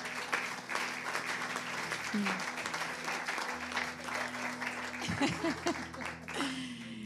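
Sustained applause from an audience fills the whole stretch, dense and steady clapping with a few scattered voices and cheers mixed in, fairly close and loud throughout.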